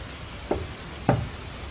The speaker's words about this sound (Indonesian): Mungkin ini hanyalah perpaduan antara suara angin di luar dan mengasumsikannya sebagai suara ketukan di jendela.